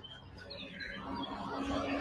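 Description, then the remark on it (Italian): A small bird sings a run of thin, high chirps and warbling notes over a steady background hiss, continuing through the whole stretch without anyone speaking. “nel silenzio che poi non è un silenzio, è un, è un positivo silenzio fatto di quest'ora di canto di uccellino, ad esempio sentiamo questo qua.”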